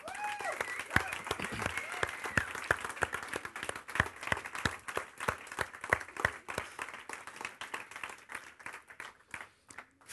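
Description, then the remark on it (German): A crowd claps in steady applause for the people who helped at the Kivo event, dense overlapping hand claps filling the whole stretch, with a few brief voices or cheers near the start before the clapping carries on alone. “Also schaut euch mal um und wer noch über ist, darf einen heftigen Applaus mal geben.”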